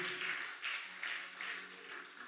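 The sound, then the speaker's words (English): A group claps together for a girl in a steady rhythm, the crowd's applause swelling in regular pulses, with no clear voices on top. “You need to clap for this girl.”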